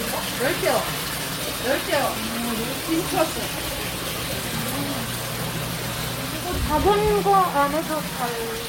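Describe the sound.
Water runs and splashes steadily from aquarium tanks, a constant close wash of sound, with faint voices and street noise drifting in the background.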